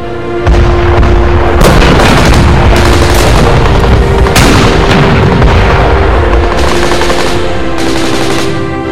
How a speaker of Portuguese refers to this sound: Tanques e canhões antitanques britânicos abriram fogo assim que os alemães entraram no raio de alcance.